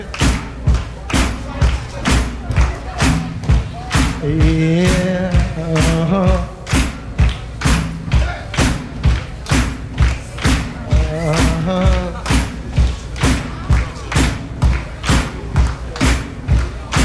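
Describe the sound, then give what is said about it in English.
A crowd stomps feet at a singer's request in a steady, loud rhythm of heavy thuds repeating about twice per second, with a few voices calling out over the pounding beat. “Uh, uh, let me hear a little foot stomping.”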